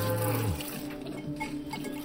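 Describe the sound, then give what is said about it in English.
Milk squirts from a cow being milked into a metal bucket held between the milker's legs, with a hollow, tinny ring, a strong low splash at the start giving way to a steadier ringing trickle, with no talking. “cow lowed softly, and hot, warm milk squirted into the bucket between my legs, hitting it with a tinny, ringing sound that always reminded me of childhood”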